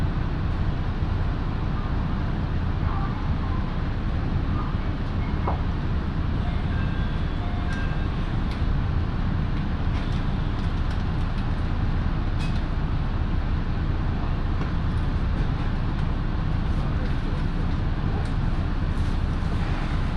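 Steady low rumble of a local one-man train on the Minobu Line in Japan, running from Minobu to Ichikawadaimon, heard from inside the carriage, with faint rhythmic clicks and occasional squeaks over a continuous, fairly loud drone.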